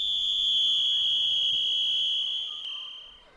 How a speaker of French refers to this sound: Soudain, un coup de sifflet retentit car la piscine va bientôt fermer.